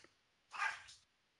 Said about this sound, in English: Your dogs are going insane. What happened out there?